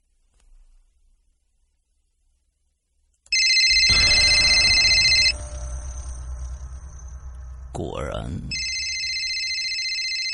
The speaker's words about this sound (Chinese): 电话铃声又响起来了。